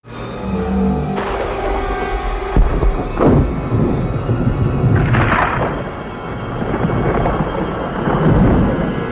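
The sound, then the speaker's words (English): Deep, rumbling thunder from lightning coming down rolls continuously with sharp cracks and booms, loud, layered with a steady stormy hiss and no voices. “Okay, so now they're sitting out in this dark, dusty, lightning is coming down.”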